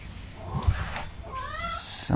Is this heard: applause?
no